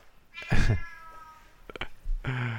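A cat lets out loud, insistent meows, a drawn-out yowl followed after a short pause by another sharp cry, with no talking.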